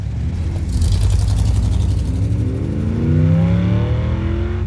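A car engine rumbles, then revs higher and higher as the vehicle accelerates and pulls away, a loud steady growl with no one speaking.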